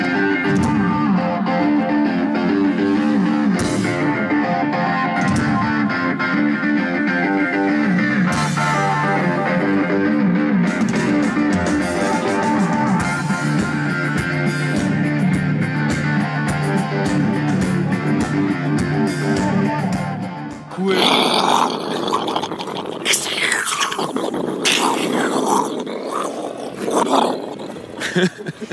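Loud, heavily distorted rock concert sound at the Rock am Ring festival, with a dense, rumbling low end, steady for about twenty seconds before breaking into a harsher, noisier roar that resembles rolling thunder.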